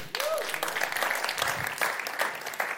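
A room full of people clapping steadily, a dense, continuous burst of applause lasting a few seconds at moderate loudness, with faint vocal murmurs mixed in.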